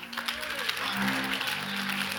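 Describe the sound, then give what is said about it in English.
A crowd claps steadily for a couple of seconds, a dense, even patter of many hands filling the room, with a voice and low tones sounding underneath. “Oh, those who are clapping i have got the revelation already.”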